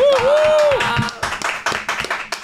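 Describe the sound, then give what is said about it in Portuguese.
An audience breaks into applause for pastor Cash Luna, dense overlapping claps rattling steadily, opening with a sustained high cheer or whistle that rises and then drops away. “Forte aplauso, pastor Cash Luna!”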